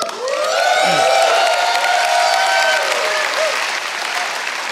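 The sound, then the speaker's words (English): A large crowd at Valley Creek breaks into sustained applause with cheering and whoops as it welcomes all of its campuses, loud and steady throughout, the clapping dense and continuous with shouts rising above it. “In fact, why don't you join me real quick in welcoming in all of our campuses together?”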